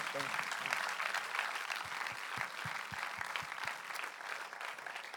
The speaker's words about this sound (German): all diesen Leuten einen großen Applaus geben, die uns das Fundament gelegt haben. Danke. Herzlichen Dank.